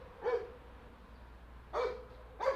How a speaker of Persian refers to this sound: سگ پایینی وحشی شده نمیدونم صداش میاد اینجا نه